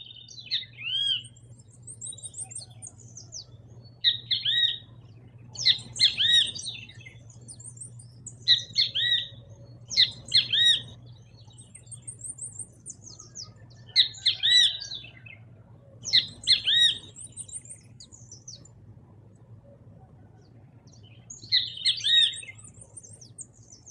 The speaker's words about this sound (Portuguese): Vocês já devem ter percebido que o bentivi tem esse nome por causa do seu canto, né? É uma ave típica da América do Sul, uma das mais populares do Brasil.